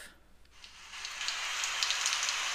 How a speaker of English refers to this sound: So I use uh, forest rain, heavy rain, and raindrop.